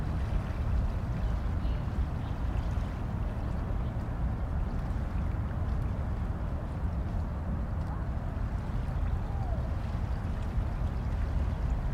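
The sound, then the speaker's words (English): A steady, continuous rush of flowing river water, with a park on the far bank, heavy in low rumble and unchanging in level from start to finish, with no distinct splashes or breaks. “quiet comes and the water is the sound that you hear.”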